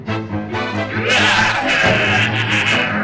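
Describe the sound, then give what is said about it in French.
A strange, drawn-out cat meow, loud, starting as a wavering tonal cry and turning harsh and raspy, almost bleat-like, for about three seconds with no talking. “T'as déjà entendu un chat avec un miaulement pareil”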